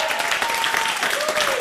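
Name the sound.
audience applause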